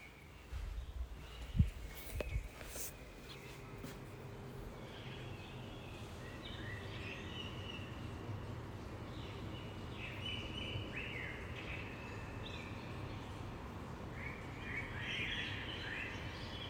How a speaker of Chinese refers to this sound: 所以呢，在这边我们插播一段，插播一段来自过去的我们家附近凌晨四点钟的鸟鸣声。现在是。凌晨四点多，你们听我们家屋外的鸟在叫，有没有听到？